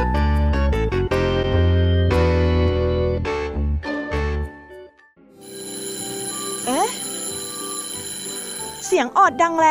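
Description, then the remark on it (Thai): A loud school bell rings out as a quick electronic chime melody of repeated ringing tones for about four seconds, followed by sustained tones with brief sliding, voice-like sounds, signalling that it is time to go to class. “เสียงออดดังแล้”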